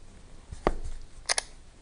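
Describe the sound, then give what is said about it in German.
An iPad cover's clasp clicks open: one sharp, crisp snap, then after a short pause a quick double click, all fairly quiet with no talking. “Hören Sie dieses Klacken?”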